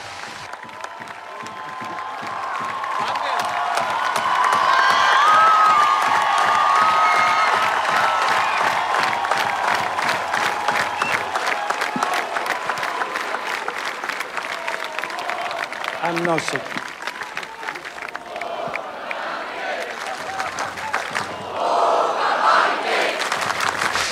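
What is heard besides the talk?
crowd ovation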